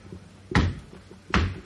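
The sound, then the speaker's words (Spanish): Two heavy, dull bangs on a window of a care home in Barcelona, struck to try to break in, though the window does not break, evenly spaced less than a second apart, loud, with a low background hum between the blows and no voices. “Sí, entramos por la ventana. Venga, vamos a, a romper Sube, sube.”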